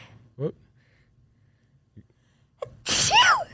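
A single loud sneeze bursts out near the end, preceded by a quick sharp inhale and a few faint, brief sounds in an otherwise quiet stretch.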